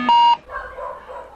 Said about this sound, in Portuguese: tem um monte de cachorro latindo e fugindo do vizinho do Cobel